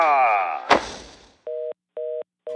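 A telephone line tone pulses three times, evenly spaced steady beeps of an outgoing call to the advertising agency Try to cancel a new radio advertisement for Gilde, coming right after a brief clatter and a fading, swirling sound at the start.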